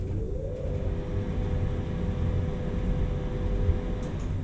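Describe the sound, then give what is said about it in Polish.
A steady mechanical whir of a ventilation fan running inside an elevator as it rides down to a courtyard, with a constant low hum and faint tonal drone, unbroken throughout, with no voices. “Wentylator.”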